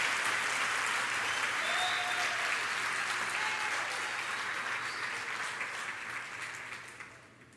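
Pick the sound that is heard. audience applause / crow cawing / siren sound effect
audience applause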